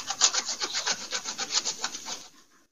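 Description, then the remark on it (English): Cheese being grated in quick, steady rasping strokes, about a dozen bright scrapes in a regular rhythm, clear with no talking, ending abruptly. “Listen to that great grating sound for your AMSR I, whatever that is.”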